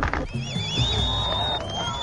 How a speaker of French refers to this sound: La mer s'assombrit brusquement, puis les falaises. Applaudissements et émotions.